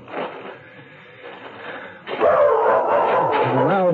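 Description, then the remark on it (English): A small dog named Tippy barks and yips excitedly in a loud, continuous burst during the second half, following a quieter, muffled stretch at the start. “Get away, you little mutt.”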